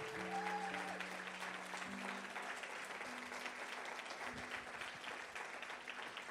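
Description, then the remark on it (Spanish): An audience applauds for the Lord during a church service, steadily for several seconds, a dense, even wash of clapping with sustained low organ or keyboard tones holding underneath. “Vamos a si ese aplauso es para el Señor, tiene que ser mejor.”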